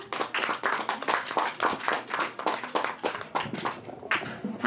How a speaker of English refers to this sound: So everybody, put your hands together